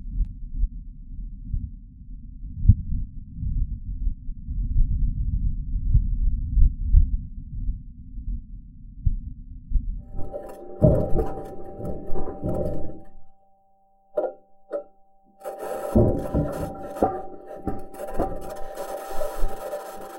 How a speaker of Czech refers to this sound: Po vyčerpávajících interpretacích vesmírných objevů si můžeme zarelaxovat za doprovodu mysteriózních zvuků krajiny Marsu, které nedávno pořídil vozítko Perseverance.